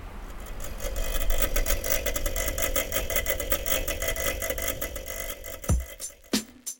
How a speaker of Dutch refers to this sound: Het enige hoorbare in deze opname is het sluiten van de deur van het archief en het ruisen en suizen van de klimaatregelaars.